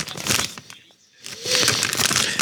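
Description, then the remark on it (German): A man opens a bag of chips with loud, crinkly rustling in two bursts, a short pause between them, the second burst longer and steadier. No one speaks. “Er öffnet die Tüte.”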